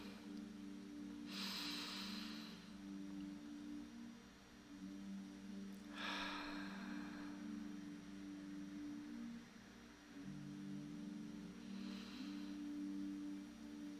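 Three slow, deep breaths in a breathing exercise to strengthen the breath, each a soft airy rush spaced several seconds apart, over a steady low hum, with no talking.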